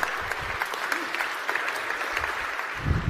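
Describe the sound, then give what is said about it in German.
Steady applause from an audience, a dense wash of many hands clapping at even loudness for a few seconds, with faint murmuring beneath. “Gut, kurzer Applaus, genau, das macht Mut.”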